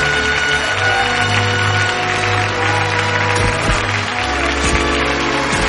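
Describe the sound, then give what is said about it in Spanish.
A theatre audience applauds fervently as an actor walks down the stairs to the stage to receive an award. A dense, steady roar of clapping stays loud for the whole stretch, with low sustained musical tones running underneath and no one speaking. “Luego baja la escalera hacia el escenario ante el aplauso fervoroso del público y recibe el premio de manos del presentador.”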